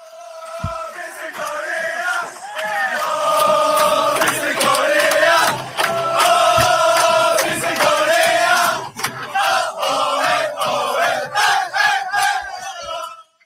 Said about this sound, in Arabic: ناس بيتفرجوا وسقفوا لما كل جابت الجون وكل حاجه بس كان في تشجيع التشجيع كان ايه بقى؟